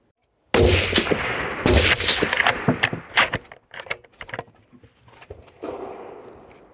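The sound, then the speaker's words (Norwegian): A single loud, sharp rifle shot cracks as a shooter lying down fires at a target 100 metres away in a big-game hunting shooting test, hitting the bullseye, followed by several seconds of metallic clinks and rattles that gradually fade, with a soft rustling near the end and no talking. “Camilla hun ligger og puster rolig og sikter, før hun løsner skuddet.”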